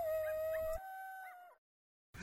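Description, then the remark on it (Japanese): A single coyote lets out a long, wavering howl that holds a steady pitch, then breaks into brief yips before fading out, with no talking. “なんか悲しい鳴き声でしょ”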